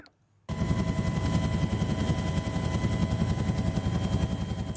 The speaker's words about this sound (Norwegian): Ja, I eh, Middelhavet flyr redningshelikoptre frem og tilbake for å redde de mange passasjerene som fortsatt er om bord på den brennende passasjerfergen Norman Atlantic.